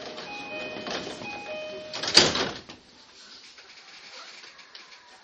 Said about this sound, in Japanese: 1番線電車は発車しますドアが閉まりましたらご注意ください